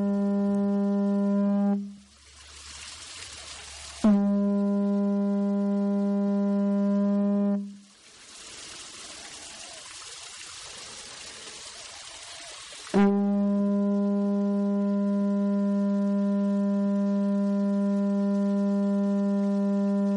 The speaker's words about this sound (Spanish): Es un aerófono, un instrumento de viento, viento perdón, con forma de concha y vamos a ver cómo suena.